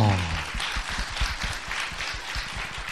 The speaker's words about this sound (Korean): 와, 박수 한번 주세요. 와.